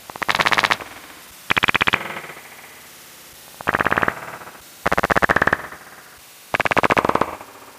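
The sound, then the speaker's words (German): Five loud bursts of rapid, buzzy chirping trills, each under a second long, separated by short gaps of quiet: soprano pipistrelle bat social calls slowed ten times, sounding like harsh warbling rattles. “Spezialrufe der Mückenfledermaus. Klingen besonders nett, sagt Ulrich Hüttmeier, wenn sie zehnmal so langsam abgespielt werden”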